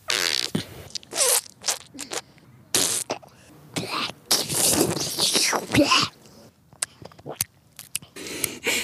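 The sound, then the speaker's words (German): Someone makes wet, squelching mud noises with their mouth, imitating a frog getting stuck while hopping through mud: a string of irregular sloppy smacks, slurps and gurgles, some long and bubbly, others short clicks, fairly loud with brief pauses between. “Ich bin gerade als Frosch durch den Gatsch gehüpft und dabei stecken geblieben. Das hat sich dann ungefähr so angehört.”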